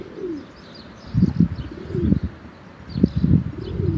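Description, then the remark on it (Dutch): A pigeon coos on the roof above, in a low, throaty, repeating rhythm: two phrases of soft rolling calls with brief pauses, with faint chirps in the background. “er zit een duif boven mij op het dak De te roekoe.”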